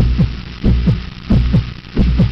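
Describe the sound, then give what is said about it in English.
The heartbeat of a dying man thumps in deep, muffled lub-dub pairs, about four beats in steady succession, loud over a low continuous hum, with no voices. “You are experiencing the heartbeat of a dying man.”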